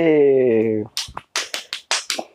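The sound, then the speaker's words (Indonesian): A held, falling vocal tone gives way to an applause sound effect: about seven sharp handclaps in a quick, slightly uneven rhythm, loud and dry, like a small burst of applause. “Terus Mas dikai efek tepuk tangan mas.”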